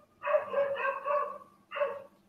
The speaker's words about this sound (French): je sais pas d'où sort le chien